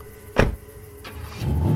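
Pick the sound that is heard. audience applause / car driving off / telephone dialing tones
car driving off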